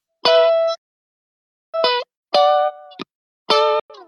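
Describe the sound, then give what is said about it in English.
Clean electric guitar played straight through an amp with all effects turned off and no compressor, in a clean tone in a guitarist's style: four short, bright chord stabs separated by pauses, with a couple of quick muted strums between them, fairly loud, no voices. “there's literally that's just the guitar and the amp”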